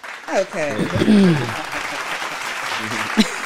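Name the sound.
clapping sound effect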